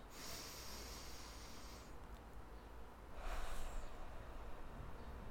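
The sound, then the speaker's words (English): A slow, deep breath drawn in through the nose, quiet as a soft, airy hiss that swells into a stronger sniff near the end. No one speaks. “Let's breathe in through your nose.”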